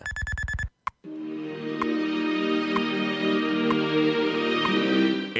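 A Radio Hora time signal marking the exact time, 8:38: a short electronic tone, a brief pause and click, then a sustained humming tone with faint ticks about once a second. No talking.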